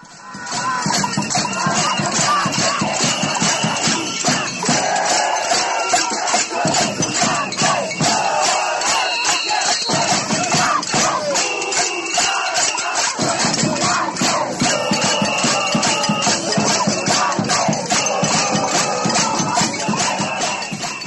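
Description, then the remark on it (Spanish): A large crowd of Colombians chants and shouts at a peaceful protest in the streets of Bogotá, Colombia, at half past four on the afternoon of Saturday 23 November. It is a dense, steady roar of many voices with rhythmic calls rising and falling throughout, loud and continuous. “Miles de colombianos protestaban en las calles de las principales ciudades del país.”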